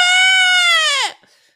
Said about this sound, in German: Und kennst du den Ziegenschrei, den berühmten, von der einen Ziege da, die haben so, okay.